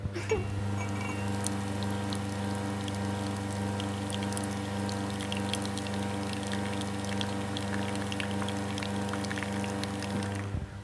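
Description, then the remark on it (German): Oat milk pours and splashes steadily for about ten seconds over a loud continuous mechanical hum with faint clicks, and no one speaks. “Wahrscheinlich müssen alle Hörerinnen und Hörer des Podcasts jetzt auf Toilette bei den Plätschergeräuschen.”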